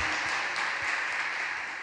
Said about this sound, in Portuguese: Dá um glória a Deus aí, querido. Pode aplaudir o Senhor em nome de Jesus. Glória a Deus. Aleluia!